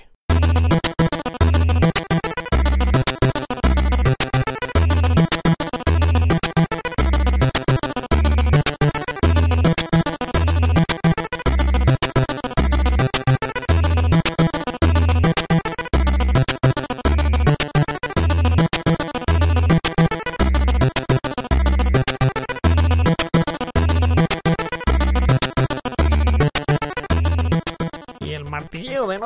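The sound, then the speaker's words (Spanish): Repetitive retro video game music from the WWF game WrestleMania Challenge plays throughout, a busy, looping melody over a steady, thumping bass pulse that never changes in loudness or pace, with no one talking. “es constante y como no varía y ni suben ni bajan, es constante durante todo el juego amigos hasta que al final te explotan los ojos de escuchar esta melodía.”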